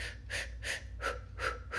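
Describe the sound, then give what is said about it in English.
Quick, forceful oxygenation breathing during a brisk morning walk: five sharp, airy breaths in a steady rhythm, about three per second, with no talking. “you know, you're breathing, you're getting that oxygen flowing as you walk quickly.”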